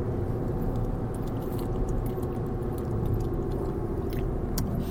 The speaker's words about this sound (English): I'm going to take another one right now. That's time. It's time for a drink break.